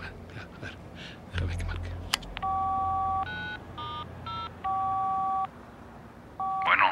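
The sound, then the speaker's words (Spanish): A phone being dialed in Ciudad Jiménez: a series of distinct touch-tone beeps in uneven steps, some long and some short, after a brief rustle and faint breathing. “Llámalo y dile que vamos.”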